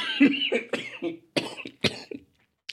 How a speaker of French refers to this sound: Ah oui, et je suis encore un peu malade, donc si je tousse, euh, c'est voilà, c'est normal, vous serez prévenus.